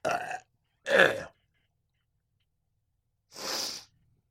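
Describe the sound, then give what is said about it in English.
Three short, harsh gagging heaves from the throat, two in quick succession, then a pause before a final hoarser retch. Each is a rough, croaking burst of moderate loudness, with no talking. “Oh God, why do I gag so easily?”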